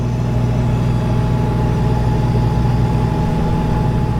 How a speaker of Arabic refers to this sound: أما هذا صوت ماكينات EUV اكستريم Ultraviolet الماكينات القادرة على تصنيع رقائق الفائقة من 7 نانومتر فما أقل 5 4 3 2 هذه ليست لدى الصين لكنها لديها كيف؟